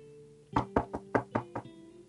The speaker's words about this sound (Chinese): 就在这个时候，突然响起了敲门声。